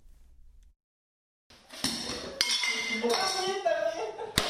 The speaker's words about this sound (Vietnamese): Những ngày này, tiếng đập phá đồ đạc đã trở thành những âm thanh quen thuộc của các căn phòng giận dữ ở thành phố Lim, miền Bắc nước Pháp. Nhiều người tìm đến đây để tạm biệt những buồn bực của năm cũ.